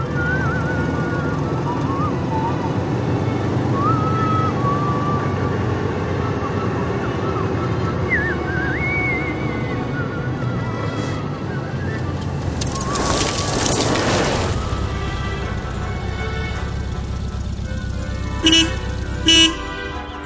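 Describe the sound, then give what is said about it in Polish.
Steady rumble of a car driving along on its way to the countryside, with a brief whooshing swell midway and two short horn toots near the end; faint birdsong sits in the background. “Ale panie profesorze, właściwie po co mamy sobie łamać głowę, skoro każdy z nas usłyszał, że ktoś w niej jedzie samochodem na wieś i że ktoś tam na niego czeka?”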